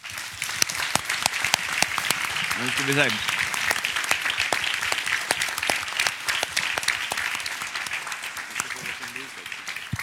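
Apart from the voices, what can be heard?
audience applause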